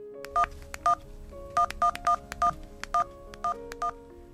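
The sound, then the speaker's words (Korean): A string of about ten clear touch-tone beeps as a man keys in a phone number to call his girlfriend, short dual-tone presses in an uneven rhythm over a faint background hum, with no talking. “순간 너무 자존심이 상했던 전 바로 그녀에게 전화를 걸었습니다.”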